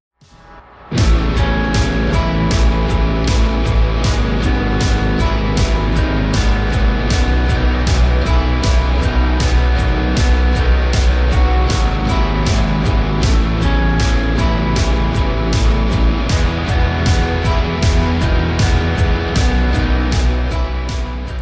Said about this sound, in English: So he, here's how I felt about the song the first time I heard it. I felt like the the beat at the beginning was too fast.